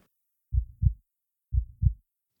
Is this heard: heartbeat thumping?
yes